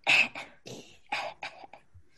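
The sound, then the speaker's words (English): A series of harsh, raspy coughs in quick bursts from someone out on the street, five or six in a row, fairly loud, trailing off into a faint throaty sound with no talking. “I just turned the audio up a tiny bit on my video, and I and I at the right at the moment that I heard that coughing, and I was like, "Can you hear my video right now?"”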